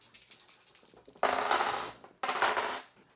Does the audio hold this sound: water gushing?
no